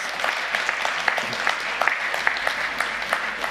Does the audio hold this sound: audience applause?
yes